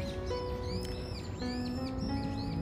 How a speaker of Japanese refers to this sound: 心なしか鳥さんたちもちょっと声が震えてる感じかな